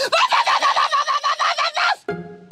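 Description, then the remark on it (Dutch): A voice imitates a watchdog barking loudly, a rapid run of about a dozen harsh, evenly spaced yaps, ending abruptly before a short, steadier tone. “Ik deed even voor hoe een waakhond luid blaft.”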